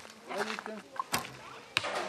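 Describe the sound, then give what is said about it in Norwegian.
Two sharp, snappy thwacks of arrows being shot from a bow at the Red Cross holiday programme Ferie for alle in Tjøme, Vestfold, Norway, spaced about half a second apart, with indistinct voices chattering in the background. “I dag skyter de pil og bue.”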